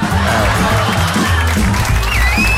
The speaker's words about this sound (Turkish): Çünkü tek besin kaynağı birazdan basacağı alkış efekti.